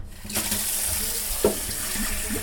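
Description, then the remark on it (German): A bottle being filled with water from a tap for a physics experiment, a steady rushing stream that starts abruptly and runs on, with a faint clunk partway through and no voices. “Eine Flasche voll mit Wasser füllen.”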